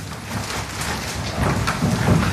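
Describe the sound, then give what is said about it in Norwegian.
Stacks of banknotes totalling 58 million kroner, seized as a bribe, being laid onto a table in Ukraine: a dense, continuous papery rustle with soft, dull thuds underneath, growing slightly louder in the second half. It could almost pass for heavy rain. “Dette er lyden av 58 millioner kroner i sedler som blir lagt oppå et bord fordi det er blitt gjort beslag på en bestikkelse.”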